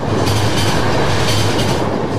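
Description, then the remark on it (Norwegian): A freight train roars past at full speed about two meters from where someone stands by the railway, a loud, dense rumble of wheels and cars with a steady clattering rhythm throughout. “når det går et helt godstog forbi deg i full fart, og det er lydene og kreftene der”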